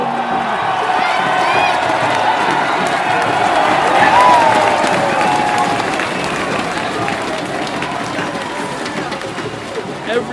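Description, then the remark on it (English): A large crowd roars and cheers continuously, a dense wall of voices with scattered whoops and shouts rising above it, loud and sustained throughout, swelling slightly near the middle. “everybody in the village just roars.”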